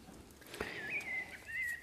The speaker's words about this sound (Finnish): Mustarastas laulaa. Öö, monen mielestä varmaan näin tammikuussa pikkusen kuulostaa oudolta ja aikaiselta